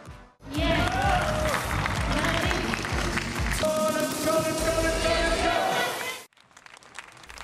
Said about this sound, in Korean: 유일한 10대 출전자 서채연의 도전에 관심이 쏠렸고 응원과 박수가 경기장을 채웠습니다.